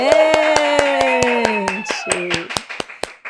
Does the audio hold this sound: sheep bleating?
no